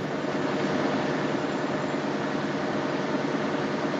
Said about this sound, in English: This is the sound of a ship's engine room. The engineer recorded it for me, awkwardly hidden away behind a generator so no one would ask him what on earth he was up to. The machines that power the ships that crisscross the globe are gigantic.